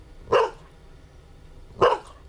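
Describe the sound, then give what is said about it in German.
A dog barks twice, two short sharp yaps spaced about a second and a half apart, clear against a quiet background. “Bier hast du nicht gern. Bist doch ein Hund, hast ein Glöpfer lieber.”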